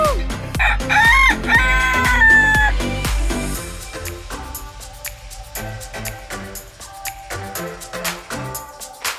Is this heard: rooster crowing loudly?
yes